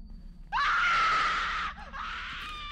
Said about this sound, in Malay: Ya, malam-malam katanya ada perempuan ni berdiri di dalam bilik dan pernah sekali tu anak perempuan saya ni sampai berteriak ketakutan